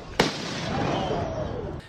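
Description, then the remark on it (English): A single sharp firework bang cracks out outdoors, followed by a long fading rumble and crackle that trails off over a couple of seconds. “Just enjoy the fireworks.”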